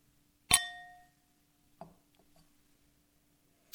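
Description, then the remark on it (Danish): Two wine glasses clink together in a toast, a single bright, ringing chime that fades slowly, followed by faint soft knocks and a short tap near the end. “Skål derude.”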